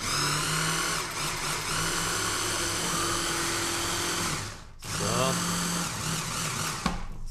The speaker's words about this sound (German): Gut, dann haben wir das. Und dann gehen wir in die zweite Mixerrunde. Achtung.